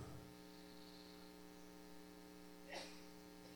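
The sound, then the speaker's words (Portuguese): A steady electrical hiss and hum from a monitor earphone during a church sermon drones continuously at low level, broken once by a short crackling burst near the end. No one speaks. “Porque ele está com algum chiado aqui.”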